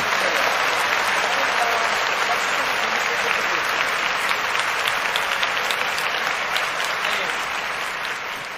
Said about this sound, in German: Oh Gott, ich muss den Applaus schon wieder einspielen.